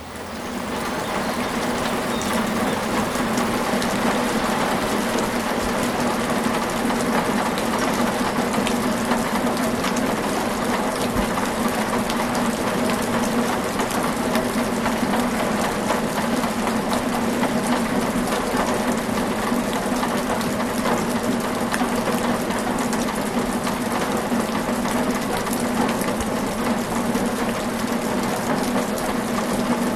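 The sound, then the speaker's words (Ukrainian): A warm summer rain shower pours down steadily, a dense, even hiss of countless drops with faint crackling patter, holding at a constant loudness throughout with no voices. “Щойно світило сонце, а за якусь мить набігли хмари, і з неба сипонув дощ.”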